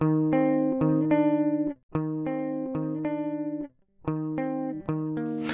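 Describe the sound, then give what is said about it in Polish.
Electric guitar through a compressor that emphasizes the start of each note, playing sustained, evenly held notes with crisp, pronounced picking attacks, heavily compressed and smooth, in three short phrases separated by brief pauses, with no voices. “Na gitarze jest klasyka. Kompresor uwypuklający początek dźwięków.”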